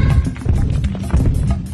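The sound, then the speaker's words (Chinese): Heavy, booming footfalls of a single elephant stomp in a steady rhythm inside a big cave, about six deep thuds over a continuous low rumble of shaking ground, with no voices. “啊，蝶哥，地摇起来了！你看到是什么让地摇起来了吗？”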